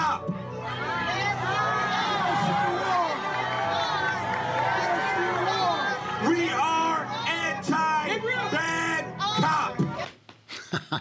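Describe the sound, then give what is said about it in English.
A large crowd jeers and boos a speaker, many overlapping voices shouting at once, some asking "What about black on black crime?", in a loud, sustained roar that fades abruptly near the end. “So they're jeering him.”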